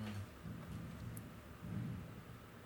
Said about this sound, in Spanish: ya van como, como cuatro o cinco veces que se escucha ese pedo. ¿Sí escuchaste? Sí, son cohetes.